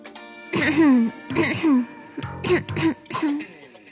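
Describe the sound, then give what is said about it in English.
A voice acts out a forced, theatrical cough and throat clearing: four short, voiced bursts in quick succession, fairly loud, with no other sounds around them. “then she forced her cough a little more so that he should suffer from remorse just the same.”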